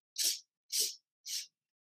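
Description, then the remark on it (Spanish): Three short, sharp intakes of breath through the nose or mouth during a 4x4 breathing exercise, evenly spaced and fairly loud, like a stepwise inhale in counted beats, with silence between and no talking. “Eh, vamos a hacer así, respiramos cuatro veces.”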